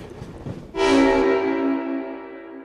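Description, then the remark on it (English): A low rumble of a passenger train gives way to a loud, sustained train horn blast, its rich chord holding steady and fading only slightly toward the end. “So, all aboard, What on Earth listeners, we're going on a journey to uncover what happened to Canada's once glorious passenger rail service and find out if we can ever get it back.”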